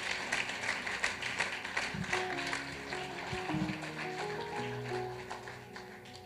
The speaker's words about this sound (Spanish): Vamos a darle un fuerte aplauso a Dios.